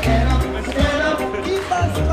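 Reggae music plays loudly and steadily at a street demonstration on Rosa-Luxemburg-Platz in Berlin, with a deep, thumping bass line and layered instruments on top; there is no talking.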